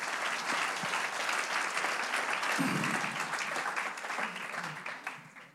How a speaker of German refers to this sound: Vielen, vielen Dank. Einen ganz großen Applaus.